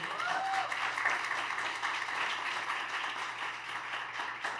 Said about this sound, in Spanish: ¿Quién le puede dar un aplauso al Señor?